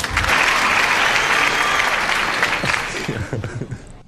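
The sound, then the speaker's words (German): A played-in applause sound effect: a burst of applause from a crowd, dense and steady clapping at full volume for about three seconds, then thinning out into a few scattered claps as it fades. “An dieser Stelle Applaus einspielen.”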